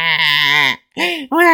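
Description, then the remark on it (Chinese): A voice imitates a tiger cub crying in the jungle over its lost stuffed toy, in a reading of the story 'The Best Dad', giving three loud, wavering wails with short gaps between them, each sustained and tonal, bleat-like and rising and falling in pitch. “虎宝宝的哭声在丛林里回响。”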